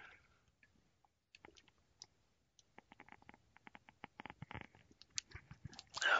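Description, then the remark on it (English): Someone sips hot coffee from a cup: quiet at first, then a rapid run of small wet clicks and slurps that grows louder toward the end. No one speaks. “pardon me while I get a cup of coffee, okay, or a little sip before it gets cold, and, and my throat's getting a little uh, raw.”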